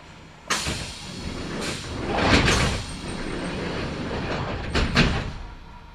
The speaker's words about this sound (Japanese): 扉が閉まりますご注意ください